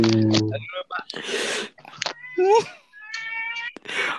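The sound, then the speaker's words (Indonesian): Cats yowling as if mating: a run of loud, drawn-out wavering cries, some rising and falling in pitch, broken up by harsh, breathy hissing bursts across about four seconds. “Kucing kawin ya?”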